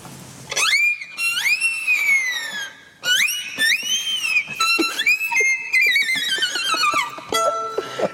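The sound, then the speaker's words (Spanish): A person's wolf whistles: a series of loud whistles that swoop up and then slide down in pitch, repeated several times in quick succession over about eight seconds, with no talking. “Eso es, es un piropo, un silbido.”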